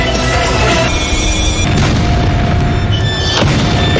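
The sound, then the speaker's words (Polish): A speeding car slams into an immovable wall, as in a car crash test, with a heavy booming crash, followed by loud, continuous crunching and rumbling noise and a couple more sharp impacts as the wreck settles. “To analogia do crash testów samochodowych, kiedy to rozpędzone auto zostaje gwałtownie zatrzymane przez niewzruszoną przeszkodę.”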